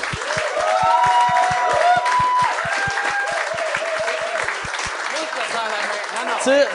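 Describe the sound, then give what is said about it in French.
A show audience applauds the evening's guests, Pierre-Luc Pomerleau and Guy Nantel, as the show begins: a dense wash of clapping lasting several seconds, with a regular low rhythmic thump underneath and cheers or whoops rising over it. “J'aimerais ça qu'on donne bonne main d'applaudissement à mes invités de ce soir, Pierre-Luc Pomerleau et Guy Nantel.”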